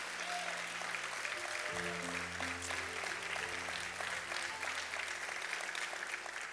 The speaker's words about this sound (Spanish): Vamos, darle un aplauso fuerte al Señor.